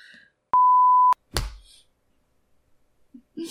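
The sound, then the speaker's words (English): A phone notification sounds once as a loud, steady electronic beep lasting about half a second, followed moments later by a sharp thump of a hand smacking the phone. “I just smacked my phone because I got so mad at it for dinging at me.”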